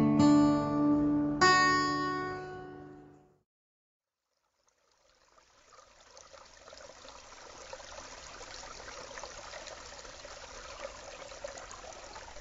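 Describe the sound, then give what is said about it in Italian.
A couple of sustained musical tones ring out, fade into a brief silence, then a steady trickling forest stream rises and runs continuously, with no voices. “Sono un ruscello di bosco. Tra i salti precipito a mare senza ritorno.”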